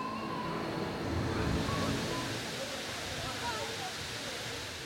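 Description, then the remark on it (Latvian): A steady, dense hiss of water being sprayed as fine droplets into fog at an expo site under hot sun runs without pause, even in loudness, with a faint murmur of voices beneath. “ūdens pilītēs, veidojot miglu.”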